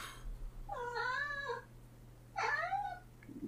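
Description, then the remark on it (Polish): Two drawn-out cat meows, fairly loud, the first longer and wavering, the second shorter and rising then falling, over a steady low hum with no one talking. “Kocie, proszę się uciszyć.”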